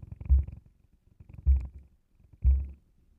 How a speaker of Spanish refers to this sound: Sigue gimiendo cada vez más duro y lo que más me gusta es el ruido del succionador contra su clítoris. Todo está sincronizado. Sus gemidos, su respiración y el frote del ruido del juguete con su clítoris.